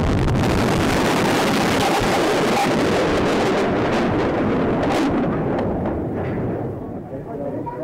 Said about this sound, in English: A massive car bomb exploded outside of a large federal building in downtown Oklahoma City, shattering that building, killing children, killing federal employees, military men, and civilians.